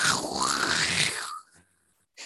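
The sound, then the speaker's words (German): A voice imitates a car driving at walking pace into a wall and scraping three or four metres along it: a loud, harsh, noisy grinding hiss held for about a second and a half, with a falling tone sweeping through it, then a short breathy tail. “ist die wirklich so mit Schrittgeschwindigkeit in die Wand reingefahren und wirklich so drei, vier Meter an der Wand lang.”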